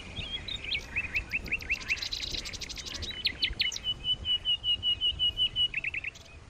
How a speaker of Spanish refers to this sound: Los pájaros.